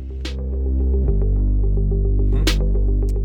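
A thick, sludgy Reese bass drones low and loud through a song, its detuned layers throbbing steadily, with a couple of brief hissy hi-hat or cymbal accents cutting in above.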